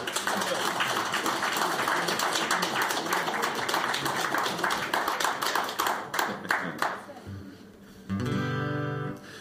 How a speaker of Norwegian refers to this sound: Gi ham en applaus!